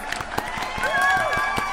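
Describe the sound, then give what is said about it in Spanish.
A burst of crowd applause with scattered sharp claps, layered with sustained brassy fanfare-like tones and a brief swooping pitch that rises and falls, all fairly loud and steady for under two seconds. “Aplausos, fanfarrias.”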